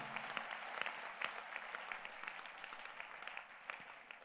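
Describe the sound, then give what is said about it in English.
An audience claps their hands for the Lord Jesus Christ in a dense, continuous burst of applause, many overlapping crisp claps forming a steady wash of sound for several seconds with no voices. “Clap your hands for the Lord Jesus Christ.”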